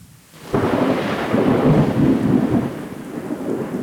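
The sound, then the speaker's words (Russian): After a brief hush, thunder breaks in loudly and rolls on in a deep, sustained rumble over a steady wash of heavy rain on a stormy night, 21 to 22 September 1709, in the village of Varnița, Moldova. No voices are heard. “Иван Степанович Мазепа покинул этот мир грозовой ночью с 21 на 22 сентября 1709 года.”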